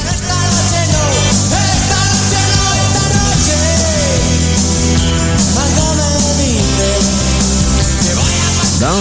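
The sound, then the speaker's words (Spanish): A loud, continuous stretch of DJ-mixed music plays throughout, with a steady heavy bass and dense layered melodic lines that swoop and slide, and no talking over it. “Bueno, vamos a escuchar otro set de mezclas musicales y regresamos.”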